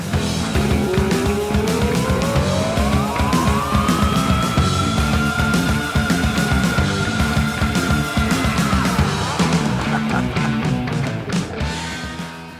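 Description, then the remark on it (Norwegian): A rock singer's scream midway through a heavy metal song rises steeply in pitch, then holds a long, piercing high note for several seconds over loud, dense guitars and pounding drums before breaking off. “Vi kan høre det derre screamet han har midtveis her.”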